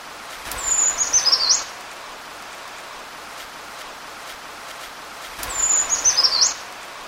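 A brown creeper sings two thin, very high-pitched song phrases several seconds apart, each a brief tumbling series of notes, heard over a steady background hiss like light rain.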